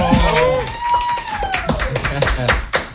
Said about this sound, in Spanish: nosotros le tributamos un fuerte aplauso en este momento.